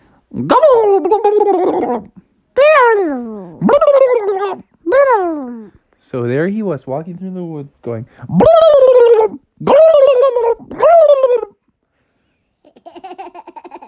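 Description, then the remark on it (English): A voice does an imitation of a turkey gobble: a run of loud, warbling, pitch-wobbling bursts with short gaps between them, after a brief stretch of ordinary talk. “And so he thought about what noise a turkey made, and this is the noise he made.”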